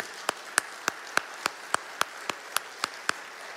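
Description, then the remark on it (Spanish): An audience applauds, a soft wash of many hands behind one sharp clap repeating at a quick, steady beat, about a dozen crisp hits in a few seconds. “¿Qué le parece si el día de hoy honramos a esas personas responsables de que tú vinieras a las plantas del Señor dándoles un fuerte aplauso?”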